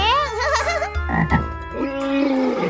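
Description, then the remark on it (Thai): Frogs croak loudly, several warbling, overlapping calls that rise and fall in pitch and fill the whole moment with no one talking. “สิงโตจึงได้รู้ทันทีว่าเสียงที่ได้ยินนั้นเป็นเสียงของกบ”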